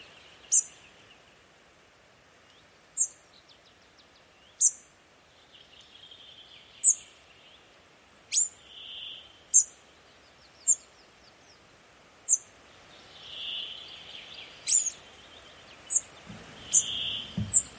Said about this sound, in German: Hören wir uns kurz den Ruf des Grauschnäppers an, der manchmal an einen Kernbeißer oder ein Rotkehlchen denken lässt.